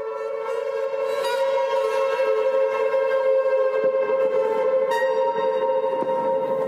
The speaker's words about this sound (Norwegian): Dette høres kanskje ut som et blåserensemble i det fjerne, men det er ikke det. Lyden du hører nå, er stoler dradd langs gulvet i mausoleet til Emanuel Vigeland.